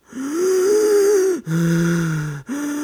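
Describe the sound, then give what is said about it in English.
A voice imitates labored, gasping breaths, as of someone suddenly unable to get air while walking up a big steep hill: three long, strained, wheezy pulls of air in close succession, loud, with brief breaks between them. “and suddenly I start having trouble breathing.”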